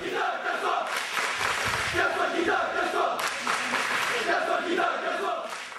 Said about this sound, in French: Quelques supporters sont venus malgré l'absence de billetterie. Principale cible des supporters nantais, comme vous allez l'entendre, c'est le président des Canaries qui était visé.